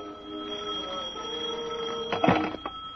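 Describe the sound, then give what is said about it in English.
A telephone in an office rings with a steady, continuous tone that lasts the whole moment, moderately loud, with a brief clatter near the end. “I just gotten back to the four walls and desk I laughingly call my office, shuffled the two ads and rent bill that represented my mail, and lit a cigarette when the phone rang.”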